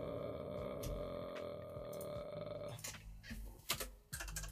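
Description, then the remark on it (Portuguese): Sporadic computer keyboard key clicks over a steady electronic hum, growing into a quicker, irregular burst of typing toward the end, with no one talking. “Agora vou fazer a grande estrilha aqui a carregar no teclado.”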